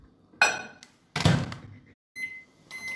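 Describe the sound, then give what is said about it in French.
A microwave oven door clunks shut with a solid thunk, followed by a pause, then steady tonal beeps as the oven is set to melt butter and chocolate in a glass, with no talking. “On commence par mettre du beurre et du chocolat dans un verre qu'on va faire fondre au micro-ondes.”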